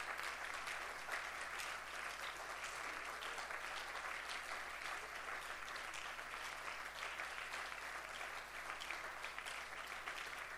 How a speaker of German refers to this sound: Lass uns aufstehen und Gott einen Applaus geben. Halleluja, Jesus. Lass uns einem wirklichen Applaus geben.